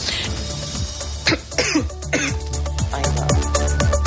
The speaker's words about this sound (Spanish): te decía, a ver si la tos me lo permite